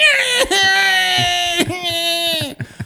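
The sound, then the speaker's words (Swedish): A voice mimics a shrill, crying-baby-like shriek of crayfish being put into boiling water: two long, loud, high wavering wails with brief catches between them, then a few short sobbing gasps. “Tänkte jag att det var barnskrik när du fiskade upp dem?”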